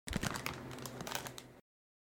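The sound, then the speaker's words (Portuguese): A bag of Doritos chips crinkles and tears open, a dense burst of crackling plastic rustle lasting about a second and a half before stopping abruptly. Nobody speaks. “boa, tô abrindo o um pacotinho aqui.”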